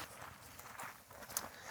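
Footsteps of people walking slowly outdoors, heading back after reaching the farthest point of their walk, a steady crunching rhythm with a brief sharper tap near the end, no voices.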